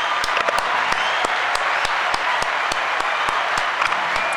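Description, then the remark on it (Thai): Steady applause from a crowd fills the whole stretch, a dense wash of many hands clapping at even loudness, with sharper individual claps popping out now and then. “ปรบมือให้กับคุณสุริดีหน่อยครับ ยินดีด้วยฮะ”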